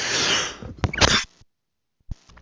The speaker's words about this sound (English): excuse me, I had to cough.